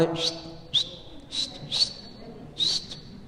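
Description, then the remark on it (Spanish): A person whistles a greeting: five short, sharp, high-pitched whistle blasts at irregular intervals, each rising quickly then holding briefly, clear over a faint low background hum. “Ya, está chiflido, ya, hicimos conecte, ya.”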